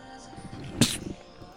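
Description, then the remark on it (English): A single sharp sneeze bursts out, a brief explosive hiss over a low murmur, then quiet background. “bless you.”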